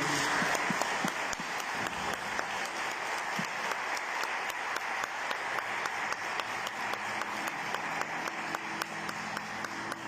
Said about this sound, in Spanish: Que tengan un buen día y felicidades, Les damos un fuerte aplauso a todas las mamás en su día.